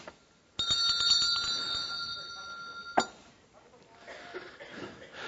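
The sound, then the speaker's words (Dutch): A small hand bell is struck and rings out brightly, its clear tone hanging for a couple of seconds before a second sharp strike cuts it off; quiet voices follow. “Waarom staat die, die bel hier?”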